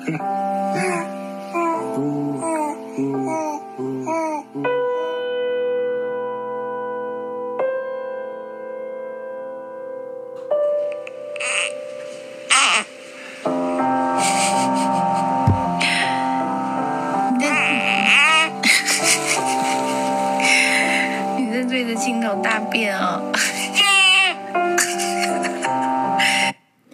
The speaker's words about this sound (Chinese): 这就是呃，在比如说你生完小孩在月子中心的时候，跟宝宝一起逗弄在玩的声音啊，然后呢，就啊咕咕啊咕咕，嗯，这之类的这种声音，那就是还蛮感人的。